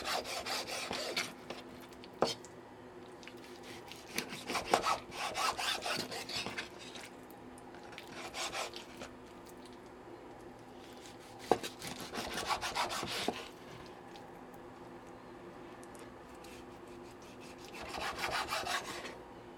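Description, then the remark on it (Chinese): A knife slices through pork belly on a wooden cutting board, making bursts of rapid, raspy sawing strokes in several clusters separated by short pauses, with no talking. “那如果你想要让这个切肉的声音一起陪伴你一起来切，那你就继续放着也 OK。”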